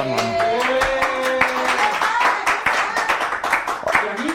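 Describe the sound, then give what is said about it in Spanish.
A burst of applause for Bo Concept: many hands clapping in quick, irregular strikes that carry steadily throughout, with voices and a brief whoop or cheer mixed in at the start. “Aplausos a Bo Concept, ¿no?”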